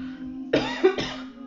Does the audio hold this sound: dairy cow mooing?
no